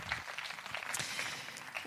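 A small audience claps steadily for the cameraman, a dense patter of hands sustained without pause at a moderate level, with no one speaking over it.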